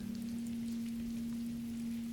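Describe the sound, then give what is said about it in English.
Soft, steady rain patters on the roof of a hut in a continuous wash of fine drops, fairly quiet, with a low constant hum running underneath and no voices. “Rain sounds nice. It does on the roof.”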